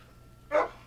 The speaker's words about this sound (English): so sorry if you hear my dog barking. He's kind of being a butt right now.